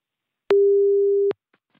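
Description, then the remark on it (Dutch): A single steady telephone ringing tone as a BNR Nieuwsradio presenter calls someone, a flat mid-pitched hum lasting under a second with sharp clicks at its start and end, followed by faint soft ticks. “Ik heb zijn nummer. Laten we even gaan bellen.”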